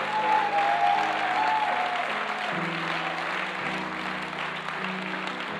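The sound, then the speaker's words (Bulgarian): Loud, sustained applause from an audience clapping to give glory to God, dense clapping filling the whole stretch at steady volume, with a low sustained musical tone humming underneath and no talking. “Трябва да ръкопляскаш силно за нов хоризонт.”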